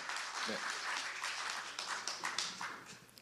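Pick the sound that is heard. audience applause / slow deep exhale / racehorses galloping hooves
audience applause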